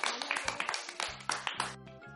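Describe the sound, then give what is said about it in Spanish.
Brief applause for the contestants of the Radio Escolar school radio program: a quick burst of loud, sharp claps in an uneven rhythm, with steady tonal sounds running underneath. No voices are heard. “un fuerte aplauso para nuestros concursantes.”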